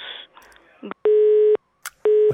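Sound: busy tone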